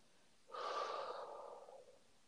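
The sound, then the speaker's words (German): A single deep, breathy inhale and audible exhale during a relaxation breathing exercise, fairly loud, swelling quickly and fading out over about a second and a half, with no talking. “Tief einatmen und beim Ausatmen gern auch geräuschvoll abgeben.”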